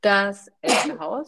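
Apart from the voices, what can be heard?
sneeze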